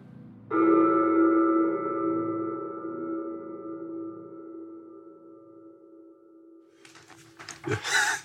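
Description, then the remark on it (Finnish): A single bell stroke rings out and sustains a steady, mellow tone with bright overtones, slowly fading over several seconds before brief rustling noises at the end. “Ja kun kello soi, muutut hitaasti takaisin ihmiseksi, juurtuen tähän hetkeen.”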